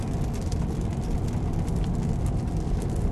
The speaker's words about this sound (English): Um, wow, a lot of traffic today.